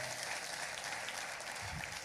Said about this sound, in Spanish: Denme un aplauso a todos estos muchachos que trabajan.